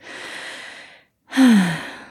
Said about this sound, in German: dass du diesen Mut findest, in die Stille mit dir zu gehen, zu atmen. Ja, lass uns mal einen Atemzug nehmen